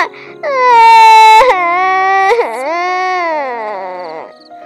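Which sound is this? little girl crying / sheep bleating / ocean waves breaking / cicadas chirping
little girl crying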